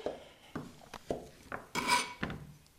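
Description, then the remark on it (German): A knife dices a frozen leftover Semmelknödel (bread dumpling) on a board for roasted dumplings: a series of crunchy chops at an uneven steady pace, with one longer rasping cut partway through. Nobody speaks. “Das war jetzt ein eingefrorener, der ist uns mal übrig geblieben. Den dürfen wir jetzt schön würfeln.”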